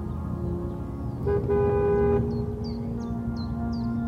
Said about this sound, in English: The purr of a car came up the road, and he could see his own breath in its headlights.